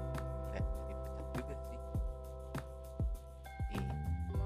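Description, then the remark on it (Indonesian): A laptop fan whirs steadily while the laptop renders video, a continuous droning hum with airy noise, broken by soft low thumps recurring every half second or so. No one speaks. “dan kebetulan sekarang kalau misalkan lu ngedengar kayak suara angin ini suara laptop gue ini lagi ngerender video”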